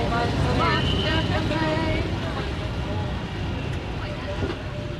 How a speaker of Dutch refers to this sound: Oeh, wat een wind, hè? Wat een wind, hè?